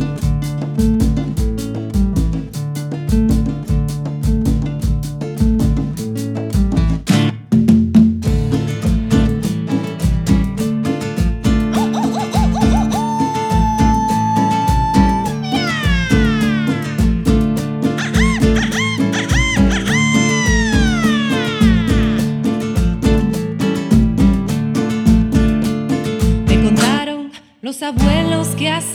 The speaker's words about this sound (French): donc on écoute, ça s'appelle donc … de l'album que se llama …